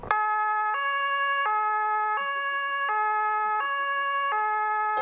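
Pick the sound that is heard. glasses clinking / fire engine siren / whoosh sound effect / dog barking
fire engine siren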